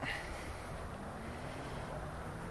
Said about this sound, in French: Il y a un peu de vent. comme ça, on verra aussi le vent, ce que ça donne. Hein. Voilà. Il y a un peu de vent, comme ça, on verra aussi les micros, comment ils, se débrouillent.